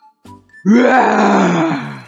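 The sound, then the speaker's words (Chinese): After a couple of brief faint sounds, a lion's roar bursts in: one long, loud, rough and rumbling roar that holds steady for over a second without fading. “我要成为你们的王！听听我的咆哮！”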